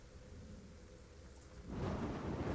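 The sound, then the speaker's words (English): Thunder rumbles low beneath steady rainfall, then swells into a louder, fuller roar of storm noise for the last second. No voices. “Ooh, sound thunder.”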